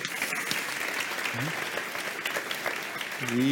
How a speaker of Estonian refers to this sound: nii suur aitäh ja teeme kõikidele viimastele esinejatele siin ka väikse aplausi.